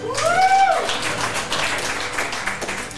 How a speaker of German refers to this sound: Aber wir lassen das Publikum entscheiden, wer ist dafür, dass äh, Hillary Clinton gewinnt. Jetzt klatschen.